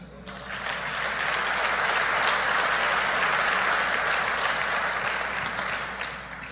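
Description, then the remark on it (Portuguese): A church audience in Araçatuba, Brazil, applauds the Lord after a prayer, a steady, dense wash of clapping that swells quickly and holds for several seconds before tapering slightly at the end, with no clear voices over it. “Aplauda o Senhor.”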